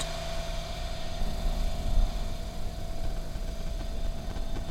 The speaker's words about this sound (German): Der Laptop surrt.